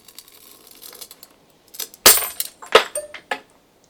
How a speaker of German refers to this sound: Dieser durchquert den Garten ein leise scharrendes Geräusch an einer Fensterscheibe,